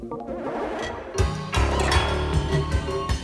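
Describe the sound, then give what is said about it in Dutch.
A dense, noisy aviation-themed pop song about a bush pilot plays loudly, with thumping low beats from about a second in and bright, crowded layers of synth and percussion stacked on top, no voices talking over it. “Omdat het nummer dat heet …. En dat gaat over een bushpilot.”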